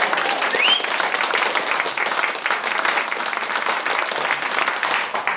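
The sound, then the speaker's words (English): An audience claps steadily together, a dense, sustained wash of applause that stays loud and even throughout, with a faint whoop near the start. “So, in order to save your lives, I'm going to let you give me a round of applause now.”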